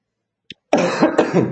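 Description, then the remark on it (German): A person coughs: a brief sharp catch, a short pause, then a rough, throaty burst of coughing lasting under a second with no speech. “Okay, und, ich merke schon der Husten, ja.”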